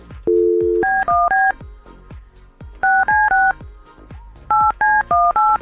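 A telephone number is dialed by touch-tone to call a caller back during a live program: a short dial-tone burst, then three quick clusters of three or four crisp DTMF beeps each, loud and clear with no talking.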